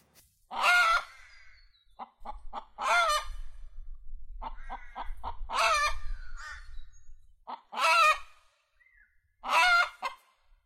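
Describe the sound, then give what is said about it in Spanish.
A hen clucks, alternating short, quick clucks with loud, harsh squawks in an uneven rhythm, over a faint low rumble. “pues en este programa tenemos a la gallina,”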